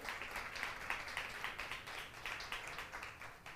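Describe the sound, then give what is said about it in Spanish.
An audience applauds the Lord in the morning, steadily, a dense crackle of many hands clapping at an even level throughout with no voices standing out. “Dale un fuerte aplauso más al Señor en esta mañana.”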